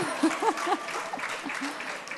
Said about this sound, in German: Gelernt, ich hätte jetzt gerne Applaus aus der vierten Reihe.